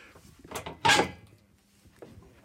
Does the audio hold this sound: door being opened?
yes